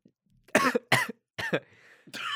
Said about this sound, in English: Oh, I just started coughing.